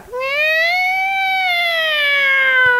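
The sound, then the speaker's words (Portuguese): A single sustained siren-like wail, loud, holding a steady high pitch for nearly three seconds; it sounds like a person's voice imitating a school siren. “A sirene, do, sirene co... do colégio, eu contava até 10 por aí, porque eu já sabia que a galera ia começar a subir.”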